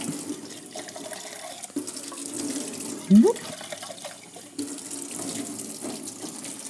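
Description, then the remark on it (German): Cold tap water runs steadily into a sink, rinsing canned black beans in a sieve with a constant hiss and splash throughout, while a short voiced exclamation briefly rises above it midway. “Einfach kaltes Wasser, ein bisschen abspülen, die hübschen Dinger.”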